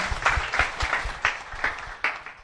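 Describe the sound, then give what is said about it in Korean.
Applause from a group, a dense crackle of many hands clapping steadily with irregular peaks, moderately loud, with no talking. “다시 한번 우리 역기민원님께 큰 박수”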